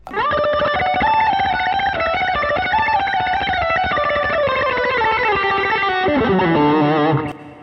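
Distorted electric guitar played by a guitarist with rapid tremolo picking, a dense, buzzing stream of fast repeated notes that shifts pitch, held loud and steady for several seconds before dropping lower and cutting off.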